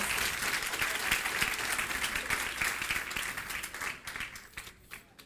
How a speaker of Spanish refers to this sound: Dele ese fuerte aplauso.